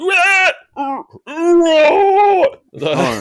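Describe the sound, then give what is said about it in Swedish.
A voice mimics the singing of a Mexican grindcore band with four strained, wailing vocal bursts, separated by short gaps. They are loud and high-pitched, and the last one turns rougher and noisier. “Men sen också när man går in och uh, börjar lyssna där och man hör någon, när man börjar sjunga så bara...”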